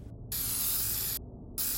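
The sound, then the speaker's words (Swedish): Two loud bursts of an aerosol can flamethrower used against snowmen, each a harsh rushing hiss, separated by a brief pause and quieter hiss, with no voices. “Som precis hade lyckats fly undan eldkastaren.”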